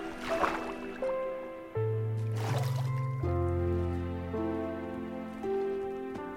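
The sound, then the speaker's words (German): Two quick watery splashes from a video game as the player jumps into water, one near the start and another a couple of seconds later, over steady synth music with no talking. “Okay, wir springen einfach mal ins Wasser.”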